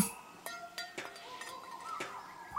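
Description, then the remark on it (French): Hammer blows clank on tin cans, five or six irregular tinny strikes with a brief metallic ring after each, fairly quiet, with no voices. “On dirait des, des coups de marteau sur des boîtes de conserve.”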